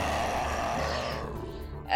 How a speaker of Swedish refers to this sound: du hör stegen bakom dig komma tungt och vrålande.